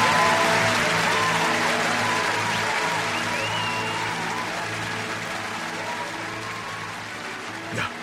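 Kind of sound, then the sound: crowd, audience applause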